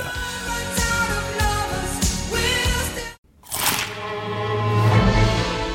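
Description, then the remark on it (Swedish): Loud, crisp crunches as someone bites into a McDonald's McCrispy crispy chicken burger, a few sharp crackling bites, a brief pause, then more crunching and chewing. “Upptäck det vackra ljudet av McCrispy Company för endast 89 kronor. En riktigt krispig upplevelse.”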